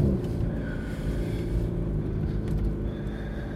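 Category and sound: vehicle, car driving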